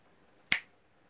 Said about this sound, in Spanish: Luego, extendió ambos brazos, se, se alzó un poco del asiento y entrechocó las palmas de las manos con energía.